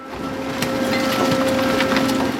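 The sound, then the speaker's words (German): Plastic waste, such as yogurt cups, Tetra Paks and mandarin nets, tumbles onto a conveyor belt at the Milo GmbH waste sorting plant in Gernsheim, southern Hesse, Germany, in a continuous loud clatter of crunching, rattling impacts, over a steady machine drone with a sustained mechanical whine. “Vor mir fällt eine riesige Menge Plastikmüll auf ein Transportband.”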